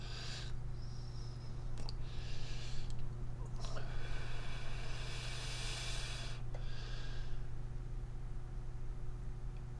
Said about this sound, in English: Um, take a little break here and hit this vape, cool off.